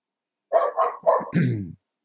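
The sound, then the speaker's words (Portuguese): A dog barks in a quick run of about four sharp, harmonic barks, the last one longer and lower, with silence before and after. “Ah, o cachorro tem aí, ó.”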